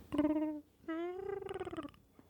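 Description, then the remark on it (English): A soft Chewbacca creature growl with a purring, rattling texture, as Chewbacca surrounded by sleeping children still tries to have a conversation, heard in two drawn-out tonal phrases with a short gap between, with no talking. “Hmm, it's like a cat purring almost.”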